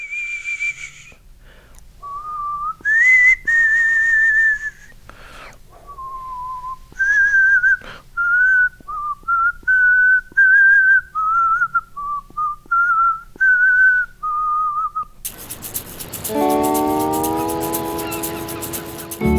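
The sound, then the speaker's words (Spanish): A single person whistles a slow, wandering melody in clear sustained notes, fairly loud, for about fifteen seconds before the sound cuts abruptly into a bright, harsh burst of other audio. “y cuando no pudo recordar las palabras, hubo una melodía que permaneció en su cabeza y que silbó casi hasta los últimos días.”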